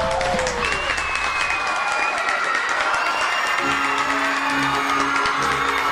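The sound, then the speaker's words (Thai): A crowd of animals cheers and applauds continuously at the finish of a race, shouting "chaiyo", a dense steady wash of clapping and shouting voices with a few higher whistles or calls rising above it, loud throughout. “ขณะที่เสือชีตากำลังเร่งฝีเท้าอย่างเต็มที่ ก็ได้ยินเสียงของสัตว์นั้นร้องชัยโยชัยโย”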